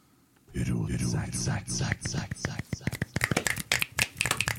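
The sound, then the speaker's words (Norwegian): A voice speaks briefly, then a rapid, irregular run of sharp finger snaps takes over, many crisp clicks overlapping and continuing loudly to the end. A group of men snap their fingers as a sign of approval. “Eh, det skulle tas som et godt tegn når eh, karene kommer med knipsinga si det var bra.”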